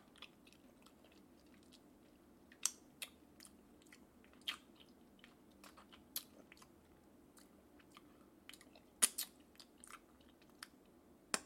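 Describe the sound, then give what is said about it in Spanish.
Crisp crunching as someone chews food, with irregular sharp crackles spread over several seconds against a soft low hum and no talking. “Pero ya, ya voy a dejar de comer pinches”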